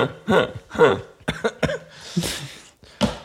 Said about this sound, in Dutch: Met die, eh, met die hoest van je.